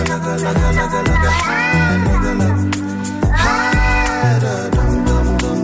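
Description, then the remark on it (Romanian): Frantic, repeated, hysterical-sounding cat meows used in a music track, layered over a steady musical beat with deep bass notes, the yowling cries swooping upward in pitch every couple of seconds, loud. “Tipul ăsta care, din uh, mieunatul pisicii care l-a început suna așa, o pisică isterică, știți?”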